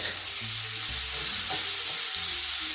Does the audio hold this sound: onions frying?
yes